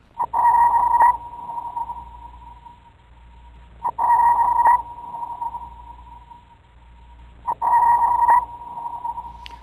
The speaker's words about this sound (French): Par exemple, comme celui-ci qu'on va entendre, c'est un sonar produit par un bateau pour se repérer aussi dans la mer.